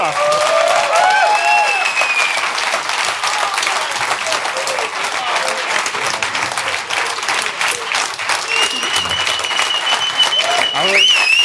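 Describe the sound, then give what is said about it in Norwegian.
A crowd applauds steadily at the end of the evening's show, dense clapping filling the whole stretch with whistles and cheers rising above it; loud and sustained without a break. “så kan vi ta imot hyllesten.”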